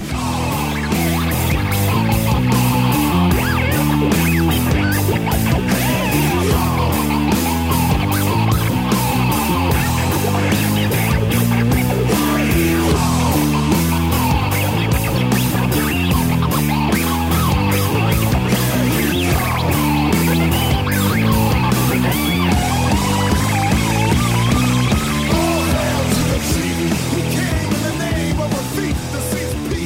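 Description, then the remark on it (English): A loud, dense instrumental passage where an electric guitar trades lines with turntable scratching over a steady driving beat, the guitar in one stereo channel and the turntables in the other, the music continuous and busy for the whole stretch with no voices. “And you can you know one of us is in one headphone, the other's in the other, and you decide which is the guitar and which is the and which is the uh, turntables.”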